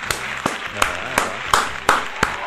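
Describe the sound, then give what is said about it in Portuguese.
A steady round of about seven sharp hand claps at an even, unhurried pace, crisp and fairly loud, over a faint low background murmur, applauding commentator Casagrande. “Para, palmas pra Casa Grande.”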